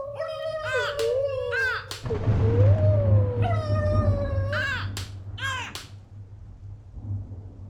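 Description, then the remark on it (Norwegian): High, harmonic cries from three frightened birds repeat in anxious bursts over a loud, roaring storm wind with a deep rumble in the dark, the calls rising and falling sharply, some piercing. “Men gjennom all vinden kunne jeg likevel høre lyden av dem. De hørtes redde ut.”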